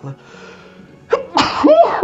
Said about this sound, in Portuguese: Eu vou espirrar.